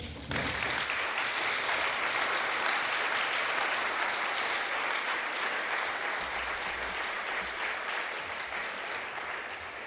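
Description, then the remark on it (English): Warm audience applause welcoming honorary guest Michael Walzer to give a Rosa Luxemburg Stiftung lecture on secularism starts suddenly and holds steady for about ten seconds, a dense, even wash of many hands clapping, with no one speaking over it. “So please welcome with me our honorary guest with a warm applause, Michael, the floor is yours.”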